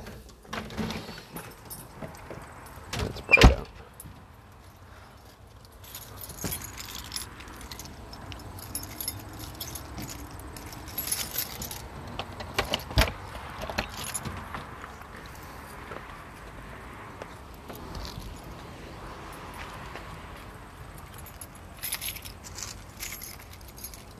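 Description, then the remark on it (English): Keys jangle and clink in brief bursts, loudest early on, over a steady background of rustling and shuffling movement, with no one talking. “Keys, phone, poop bags.”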